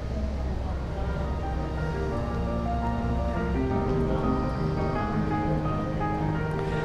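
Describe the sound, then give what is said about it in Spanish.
Steady wind and surf roar continuously at a sea cliff with a lighthouse at Cabo da Roca, Portugal, the westernmost point of Europe; a dense wash of noise with no breaks and a faint tonal hum running underneath. “Es un acantilado vigilado por un faro, siempre azotado por el viento.”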